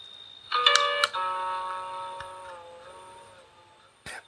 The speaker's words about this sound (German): Das ist die Buddha Machine. Das klingt eher wie in so einem Horrorfilm.